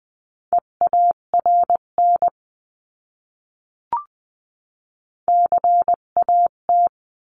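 Morse code practice words sent at 16 to 20 words per minute as a steady mid-pitched tone, short and long beeps in two quick bursts separated by a silent pause broken only by a brief click.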